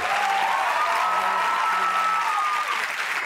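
Sustained audience applause, a dense wash of many hands clapping steadily at even loudness for several seconds, with a faint tonal hum running underneath and no speech.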